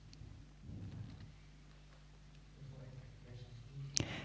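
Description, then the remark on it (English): A single soft, muted half strike on a bell, made gently to wake up the bell and alert that a full sound of the bell is coming, comes near the end, short and damped rather than ringing out, heard against a low, steady background rumble. “And then you make a wake up sound, a half sound of the bell. You wake up the bell.”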